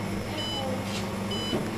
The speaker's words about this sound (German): Ich stehe hier zum Beispiel an einem Automaten in Hüttental. Den hat die Molkerei hier aufgestellt. So, und jetzt muss ich erstmal die richtige Nummer drücken.